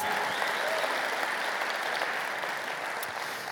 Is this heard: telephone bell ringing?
no